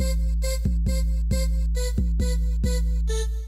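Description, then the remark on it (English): A descending staccato synth ostinato in A minor, starting on the third degree of the scale and descending to the tonic, repeats in short, evenly spaced notes over a sustained low bass drone, loud throughout, with no voices. “It's a descending phrase in staccato.”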